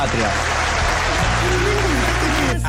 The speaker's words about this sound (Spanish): se aplaude al final